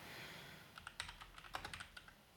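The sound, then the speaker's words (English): Crisp typing on a computer keyboard: a quick burst of clicky keystrokes in an uneven rhythm, clustered in two short flurries, with no voices over it. “Ah, damn keyboard.”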